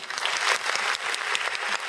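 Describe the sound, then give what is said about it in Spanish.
A short burst of steady clapping from several people in tribute to a retiring US women's footballer, dense and crackly with no pauses, holding a fairly even loudness throughout and no voices heard over it. “Un aplauso para ella.”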